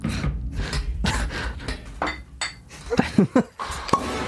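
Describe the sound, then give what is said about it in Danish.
Champagne glasses clink together several times in a quick New Year's toast, bright ringing taps, with soft breaths and murmured voices around them. “Skål. Skål. Godt nytår.”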